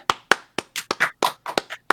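Several hosts clap together to close out their show in a quick, uneven burst of about a dozen sharp, bright hand claps over roughly two seconds, with no talking.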